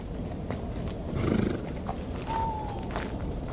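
Horses neigh in short, throaty whinnies while hooves clop steadily beneath, against a constant rustling outdoor background, as the horses are left to be tied up among trees on a fine, breezy night.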